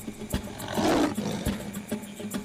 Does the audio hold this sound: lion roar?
yes